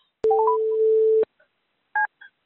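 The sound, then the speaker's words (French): A steady electronic telephone tone holds for about a second, starting and stopping with sharp clicks, followed by a short two-pitch voicemail beep and a faint blip, heard between calls to French voicemail greetings, with no voices. “Bonjour, veuillez laisser un message après le bip sonore.”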